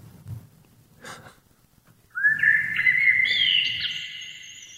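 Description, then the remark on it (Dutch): Birdsong outdoors in nature during a birdwatching outing: after a couple of seconds of quiet rumble, a loud, sustained whistling song begins, its clear tones rising and stepping up in pitch. No one speaks. “We mogen niet te veel lawaai maken, want we gaan vandaag vogels spotten.”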